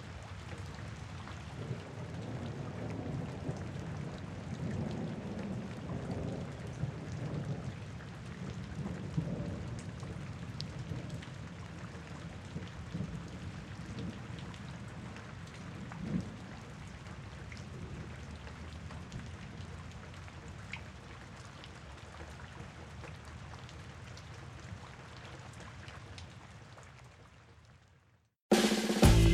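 Steady rain falls continuously with a soft, broad hiss and low rumbling undertones, holding a fairly even level for almost half a minute before cutting off abruptly into a brief louder burst.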